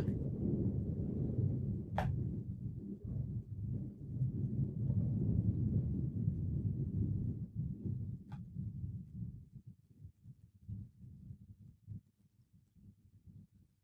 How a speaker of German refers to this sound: Big, another big, big explosion. This camera, I believe, is in Gaza City looking north. Some intense airstrikes going on the last few minutes in northern Gaza.